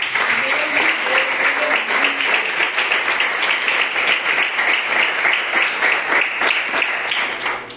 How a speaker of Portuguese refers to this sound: Essa é a palavra que o Senhor colocou no meu coração e as palmas que glorificam. a Deus.